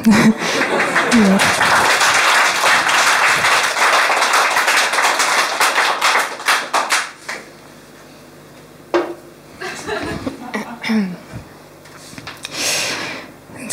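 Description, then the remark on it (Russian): A live audience breaks into dense, sustained applause for several seconds, then the clapping cuts off and it goes quieter, with a voice talking amid a few scattered claps. “Не надо, не хлопайте.”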